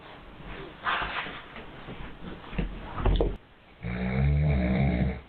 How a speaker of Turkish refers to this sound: Bir süre sessizleşen baba yeniden horlamaya başladı.